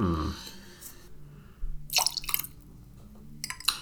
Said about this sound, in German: Also, wir füllen jetzt erstmal die Gläser mit Eis. Ja, Eis. Eis, Eis, Eis. Vier Gläser mit Eis. So, dann kommt da 50 ml Glenmorangie rein.